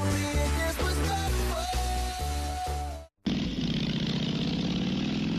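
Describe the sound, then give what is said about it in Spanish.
A rhythmic musical passage cuts off abruptly, then a loud motorcycle engine roars and revs steadily for a couple of seconds with a rough, throbbing rumble. “Nuestro objetivo, sacar el mayor rendimiento a tu moto, durabilidad con un mantenimiento adecuado.”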